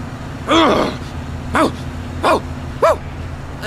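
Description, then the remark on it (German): A dog barks four times in short, separated bursts, fairly loud, over a steady low engine-like hum in the background. “Hund, da ist ein Hund, er hat einen Hund.”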